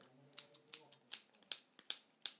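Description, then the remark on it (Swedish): A remote control being handled, giving about eight sharp, snipping clicks like scissors at an uneven pace, with a faint low hum underneath at the start and no talking. “Så då behöver jag bara hämta min fjärrkontroll.”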